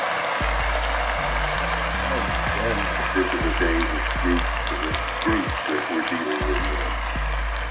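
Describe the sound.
Steady crowd applause fills the whole stretch, a dense wash of clapping at moderate loudness, while a man talks over it in the foreground.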